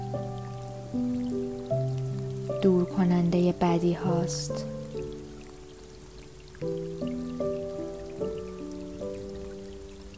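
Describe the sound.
Soft, steady rainfall with scattered raindrops patters quietly in the background beneath sustained piano notes, while a calm voice speaks over it in a relaxing meditation.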